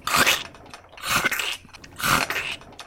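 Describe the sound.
Three loud crunching bursts in a steady rhythm, each a gritty, chewing-like crunch of about half a second, as a voice imitates something mechanically crunching Weedle bits.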